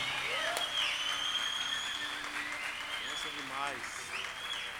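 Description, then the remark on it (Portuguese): A church audience claps steadily and densely for several seconds to welcome an invited pastor, with scattered voices calling and cheering over the applause, which stays fairly even in loudness throughout. “Vamos recebê-lo com uma salva de palmas a Cristo Jesus pela vida do pastor”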